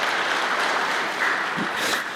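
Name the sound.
audience applause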